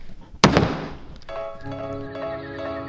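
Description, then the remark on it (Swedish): A speaker's gavel, made for the parliament's second chamber and still in use, strikes once with a sharp, loud wooden bang that rings briefly. A steady tonal hum with overtones then carries on quietly underneath. “Okej, vi hör en gång bara hur dunket låter.”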